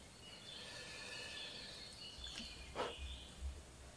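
Faint birds chirp and trill outdoors, a steady high twittering with a couple of soft bumps near the end and no one talking.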